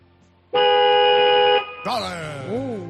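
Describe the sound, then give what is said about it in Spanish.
The horn of a 2019 SEAT car gives a single steady honk lasting about a second, loud, before a voice begins speaking right after it cuts off. “Eso es un SEAT. Efectivamente.”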